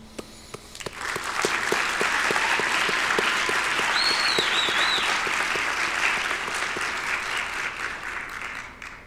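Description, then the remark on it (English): A graduation ceremony crowd applauds the faculty and staff in sustained applause. Dense rapid clapping swells quickly and holds steady for several seconds, with a few faint whistles rising above it before it tapers slightly. “Before we conclude, I want to applaud the faculty and staff who have worked tirelessly to prepare the next generation of leaders.”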